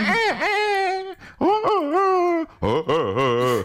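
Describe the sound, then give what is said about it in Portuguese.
A person mimics a rooster's crow with their voice, imitating one rooster among many roosters crowing, producing three loud, drawn-out calls that swoop up and down in pitch, separated by brief pauses. “no meio daqueles galos todos a cantar, há um que diz só”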